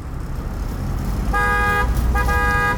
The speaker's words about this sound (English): Standing on this busy street in central Beijing, the evidence of China's phenomenal growth is all around the traffic's stacked up, and smart new apartments are being built in front of the gleaming air conditioned office blocks.